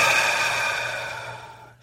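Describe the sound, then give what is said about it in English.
A slow, deep, conscious breath exhaled, airy and steady, gradually fading away like a long sigh, with no talking. “if you're doing a really conscious breath, like which is what I, am going to do it right now because it's, it's either this or yawning.”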